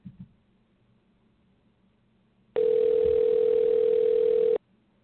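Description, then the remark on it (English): A loud, steady telephone dial tone hums for about two seconds as a call is placed, starting abruptly and cutting off cleanly, with only faint low background noise before and after and no talking. “So you may be receiving a call from me, okay?”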